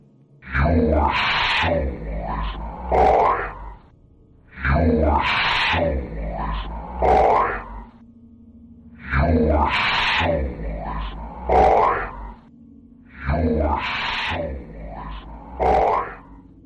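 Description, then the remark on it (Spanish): An eerie, guttural voice intruding on a telephone call grunts and groans in four matching bursts, each a few seconds long with short pauses between, rough and strained, loud and alone with no other sound. “Imagínate tú estás teniendo una conversación con alguien y de golpe se te meten voces como la que acabamos de escuchar y tú piensas, bueno, ¿y ahora qué hago?”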